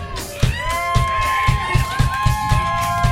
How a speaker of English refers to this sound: One, you guys all gave yourselves a round of applause. I said you guys should give yourselves a fucking round of applause, damn it!